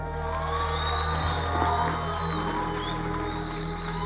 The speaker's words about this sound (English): clap for them again.